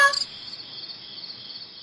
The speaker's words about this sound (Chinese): 不过婆婆，这是一只会唱歌的蝈蝈，您听，它唱的多好啊！